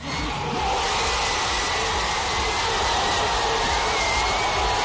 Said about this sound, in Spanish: Así lo celebraban en la principal plaza de Zagreb. Después la celebración siguió hasta la madrugada.